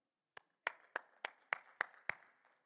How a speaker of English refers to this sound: Y'all don't have to clap.